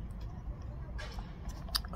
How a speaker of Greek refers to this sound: μικρό διάλειμμα και ας θυμίσω λίγο Λεβέντη για να πιω μια γουλιά στέγνωσε ο στόμας μου